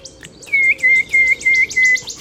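A bird sings a quick series of five bright, evenly spaced chirping phrases, clear, over a soft, steady wash of sea noise, in a grove on an island. No one speaks.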